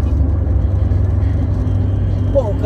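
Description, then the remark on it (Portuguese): A large truck, about 15 metres long, rumbles in road traffic as it signals and turns, a loud, steady low drone that holds without a break as the vehicle moves slowly through its turn. “deu a seta e foi virando. E eu queria passar, é um caminhão de, sei lá, 15 metros.”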